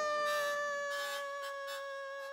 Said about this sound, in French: En sautant dans la cheminée, le grand méchant loup tomba tout droit dans l'eau bouillante et se brûla. Il hurla si fort qu'on entendit son cri jusqu'au village voisin.